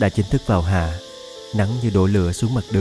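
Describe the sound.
Cicadas chirp in summer trees in a steady, shrill drone that runs continuously beneath a person speaking, most noticeable during a brief pause in the talk.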